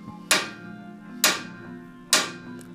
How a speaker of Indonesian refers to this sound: nggak lama kemudian gue diketokin lagi itu tiga kali ketokannya kayak gini